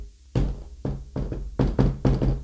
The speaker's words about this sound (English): So after after those little musical type of knocks went, then it kind of escalated to something else.